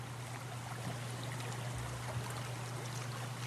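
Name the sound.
flowing river stream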